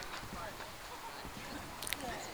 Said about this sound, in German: Warte, hört man dieses Knistern in meinem Mund, wenn ich so nah dran bin?